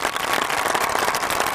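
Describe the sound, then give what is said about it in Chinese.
A short burst of dense, steady applause, many hands clapping at once in a continuous crackling wash with no voices over it. “我们你们 值一个掌声， 来一个掌声一下，这样子。”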